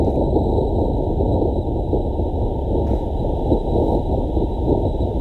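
A low-frequency earthquake recording sped up 100 times: a low, continuous rumbling roar, like heavy wind or churning, fills the whole stretch at steady loudness, with a faint high whine above it and no voices.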